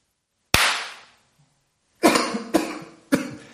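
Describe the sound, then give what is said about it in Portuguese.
Four sharp coughs: one on its own, then a pause followed by three more in quick succession, each with a harsh, breathy tail. “Desculpa, já peço desculpa antecipada porque você vai ouvir algumas tossidas às vezes, tá?”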